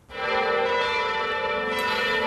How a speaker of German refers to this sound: Im ganzen Land läuteten zum Gedenken in den katholischen Kirchen die Glocken, wie hier in Weil am Rhein, 15 Minuten lang.